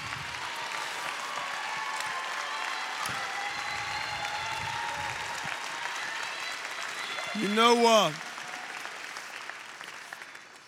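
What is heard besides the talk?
audience applause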